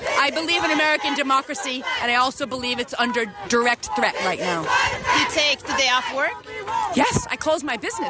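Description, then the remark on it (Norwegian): A group of women protesters in the USA shout the chant "This is what a feminist looks like" together, their loud, high voices overlapping in rhythmic bursts that continue steadily for several seconds. “Slik ser en feminist ut, roper hun og kvinnene som står rundt henne.”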